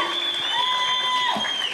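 An audience claps steadily in a dense, continuous patter of applause for the first contestant, with a few sustained tonal notes ringing faintly underneath throughout.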